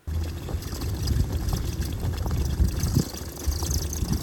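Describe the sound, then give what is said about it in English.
A Gladiator fitted with lugged tracks drives over ice at Dana, recorded with a camera held out the passenger window, making a steady, loud low rumble with a rough, churning texture from the lugs digging in, carrying on unbroken for several seconds. No one speaks. “All right, I've got a quick video here from when I was up at Dana, just so our audience can listen to what it sounds like with the Gladiator on the track.”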